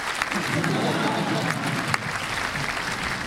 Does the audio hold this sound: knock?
no